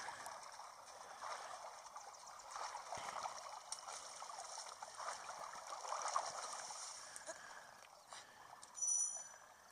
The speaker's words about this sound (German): Ja, jetzt schwimme ich halt. Wie man an den Geräuschen hoffentlich hört.